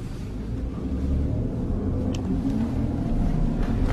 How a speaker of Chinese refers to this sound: 哇，这个车提速还不错啊，因为它是一个涡轮增压版本。嗯，油门过了两千多转的时候，你能感觉到这个。那涡轮的这个介入，但是我总的感觉不如刚才那台四七零零的发动机 V 八的那台发动机的给力